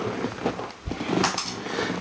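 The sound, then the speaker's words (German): Muffled rustling and shuffling as a dog is lifted and settled onto a lap, with a soft thump partway through and a faint snuffle, no talking. “Oh, ich muss mal ganz kurz den Hund hier, sorry.”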